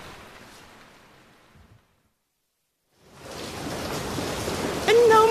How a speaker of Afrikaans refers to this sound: Met die hoeveelheid reën wat reeds vanmôre geval het, kan dit nie anders nie.